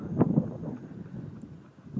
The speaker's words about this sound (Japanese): 今橋の、橋の上に差し掛かっております。えー、風が強いですね。風が強い。